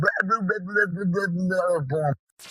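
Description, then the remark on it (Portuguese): A dog barks and yelps frantically, a rapid run of high, whining yaps for about two seconds before cutting off abruptly. “Cão loucura.”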